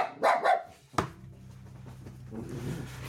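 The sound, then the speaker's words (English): A dog barks twice in quick succession, loud, followed by a sharp knock and a steady low hum with no one speaking. “Oh, folks, I apologize for the dog noise.”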